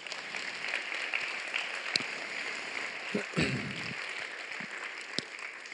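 A crowd applauds steadily for several seconds, a dense, even wash of many hands clapping at moderate volume, with a brief murmur of voices partway through.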